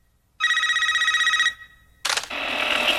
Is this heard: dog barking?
no